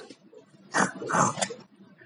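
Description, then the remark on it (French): A person imitates a pig with a couple of rough, snorting oinks, loud, each lasting a fraction of a second over faint background noise. “Et comment il parle le cochon”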